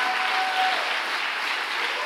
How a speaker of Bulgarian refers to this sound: О, ако ръкопляскаш, ръкопляскаш, като че го вярваш.